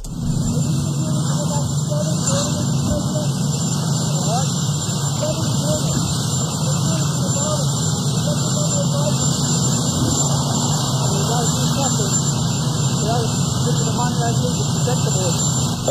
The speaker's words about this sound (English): Okay, yes, you can hear that last part. So the question was uh, over the uh, the loud aircraft noise there.